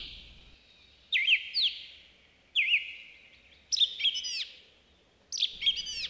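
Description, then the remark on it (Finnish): A male song thrush sings from high up in a forest in four bright, ringing phrases separated by short pauses, each loud and clear, with a soft forest echo trailing off afterward. “Ylhäällä laulava koiras ottaa metsän kaiut haltuun ja tarjoilee monipuolista kuunneltavaa metsässä liikkuville ihmisille.”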